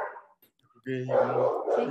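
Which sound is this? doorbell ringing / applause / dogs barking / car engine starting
dogs barking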